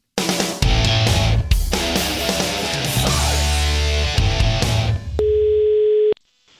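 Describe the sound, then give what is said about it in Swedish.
After several seconds of loud, busy music, a single steady telephone ringing tone of an outgoing call sounds for about a second near the end, then cuts to silence. No one speaks. “vi ringer mm. vidare.”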